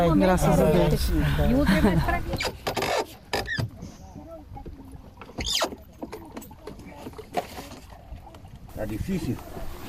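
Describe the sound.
A boat engine runs briefly with muffled voices, then stalls and falls quiet, followed by several short, sputtering bursts as a man repeatedly tries to restart it.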